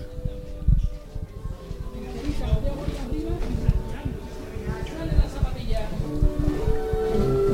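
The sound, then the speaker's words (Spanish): During a muda, a group of costaleros shuffle their sneakers in unison beneath a procession float, keeping time to a drum: a steady, rhythmic scraping of many feet on the ground, fairly loud, with voices murmuring underneath. “Eso es, rasheamos siempre. Eso, es, que suene la zapatilla siempre.”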